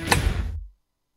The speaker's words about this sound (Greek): Να ανοίξει η πόρτα.